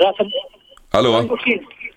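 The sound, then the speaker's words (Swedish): A caller's radio bleeds back through the phone line during a call-in conversation, a thin band-limited mix of voices and music with a louder burst midway, heard as muffled broadcast audio on the call. “Jag ska stänga bara radion.”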